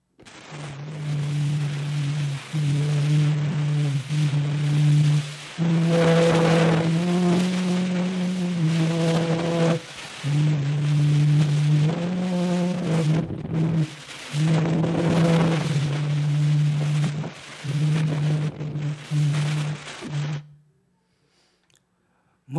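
A very old, heavily distorted phonautograph recording, digitally converted from a traced waveform, of a human voice humming a slow tune in sustained, stepping notes, buried under constant harsh hiss and rumble, then cutting off abruptly near the end.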